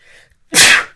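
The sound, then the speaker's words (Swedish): A single loud sneeze, preceded by a faint breathy intake and then an abrupt burst of noisy sound that fades out within half a second. “Prosit. Ja, ursäkta.”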